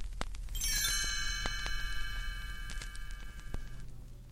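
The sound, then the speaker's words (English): A single bright chime strike rings out and sustains with shimmering metallic overtones for a few seconds before fading, accompanied by a few soft clicks and low background rumble, with no talking. “You'll know it's time to turn the page when you hear the chimes ring like this.”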